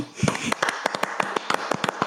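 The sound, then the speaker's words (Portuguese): A short burst of hand clapping: roughly a dozen sharp, slightly irregular claps over about two seconds, steady in loudness, with no voices over them. “Palmas, né?”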